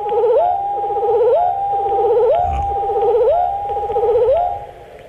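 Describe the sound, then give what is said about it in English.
A wood thrush song slowed to one-tenth speed: deep, drawn-out warbling phrases repeat about every second, each sliding upward with a rising sweep, loud and clear with no talking. “Here it is at one tenth speed, wood thrush.”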